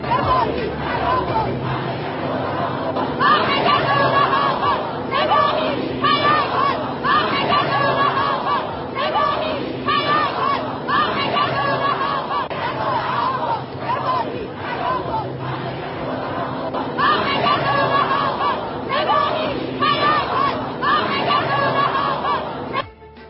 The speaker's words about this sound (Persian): شعار مردم کرج در مترو در همبستگی با خوزستان